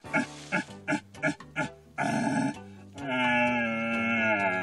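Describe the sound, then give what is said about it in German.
A person imitates a rutting stag's roar with a horn-like caller at a deer-calling championship: several short, grunting bursts followed by two longer, drawn-out bellowing roars, loud. “Ach ja, die Hirschrufer hatten ihr großes Treffen.”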